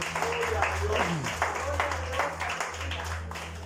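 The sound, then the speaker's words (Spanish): A crowd applauds the Lord steadily for a few seconds at a night gathering, the clapping dense and fairly loud, with voices and a low sustained hum underneath. “Denle un aplauso al Señor, por favor, esta noche.”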